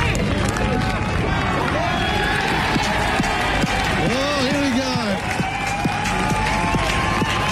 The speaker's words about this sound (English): There's a happy crowd